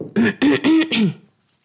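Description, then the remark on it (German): Someone clears their throat in four quick, voiced rasps that run together over about a second, then silence follows. “Gegens die Frösche.”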